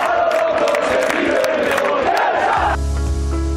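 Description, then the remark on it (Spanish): A loud stadium crowd at San Mamés chants in unison, a dense roar carrying a sustained sung tone, for about two and a half seconds before giving way to steady-toned music. “Y que hizo cantar a San Mamés.”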